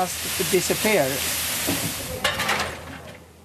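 A steady hiss of steam and sizzling from blue mussels cooking in a pot with the lid on to keep the steam in, with a brief voice near the start and a few louder bursts of bubbling toward the end.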